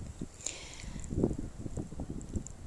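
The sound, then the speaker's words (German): Gusty wind rumbles and buffets the microphone in uneven low bursts, with a faint rustling hiss above. No one speaks. “Jetzt kommt der Wind und ich hoffe, dass man mich trotzdem weiterhin gut hört.”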